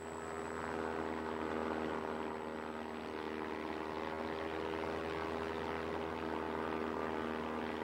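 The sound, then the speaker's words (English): A steady, loud drone of the propeller engines of eight bomber airplanes over Woodland, Washington, fills the whole stretch, a thick low hum with constant tones and no pauses, continuous with no voices. “I'm plane V843 over Woodland, Washington. Lieutenant Vo, commanding eight bombers.”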